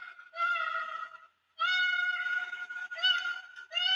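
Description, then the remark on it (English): A koala's distress call: loud, drawn-out wailing screams in three long bursts, nasal and harmonic-rich, with a brief silent break after the first cry. Alone, with no talking. “Okay, so that is the wailing screaming call, also known as a distress call.”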